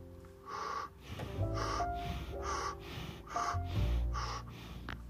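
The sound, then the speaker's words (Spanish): Quick, rhythmic breaths, about eight sharp huffs in a steady pattern of sharp inhales through the mouth and exhales through the nose, over a low, steady tonal hum. “inhala rápido y rápido. Recuerda inhalar por la boca, exhalar por la nariz.”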